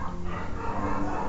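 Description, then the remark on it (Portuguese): Several dogs bark at once in the background, a steady, overlapping chorus of yaps, with no one talking. “Pera aí, que tem um monte de cachorro latindo.”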